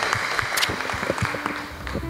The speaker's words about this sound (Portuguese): Vamos dar salve de palmas aí ao Senhor, né? Pela vida.